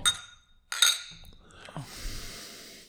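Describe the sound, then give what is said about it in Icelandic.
Two bright glass clinks ring out close together near the start as beer glasses are tapped in a toast during a beer tasting, followed by a soft rustle and a quiet sip or breath. “En skál, Þorgnir. Skál.”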